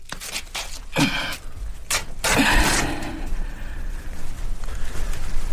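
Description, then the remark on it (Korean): Clothes being worn are ripped apart to write a memorial to the king on, in several loud, harsh tearing bursts, one around each second, over a steady noisy background with no voices. “성세정은 입고 있던 옷을 찢어서 상소문을 쓰는데요.”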